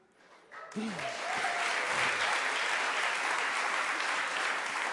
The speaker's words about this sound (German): Okay, ähm, das ist zwar super, aber können wir einen großen Applaus nach der neunten Person machen?